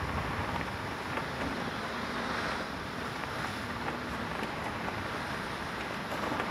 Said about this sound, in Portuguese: Praia onde não se vai sem casaco. Não se entra na água sem virar sorvete. Onde você precisa de um cesto para se proteger desse vento.